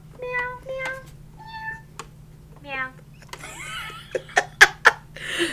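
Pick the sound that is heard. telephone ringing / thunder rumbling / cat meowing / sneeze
cat meowing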